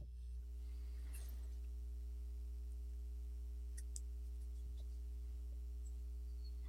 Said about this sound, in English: So that little hum you may hear down the street, just like a nice, soft electric hum. That's a two wheeler, scooter, moped motorcycle.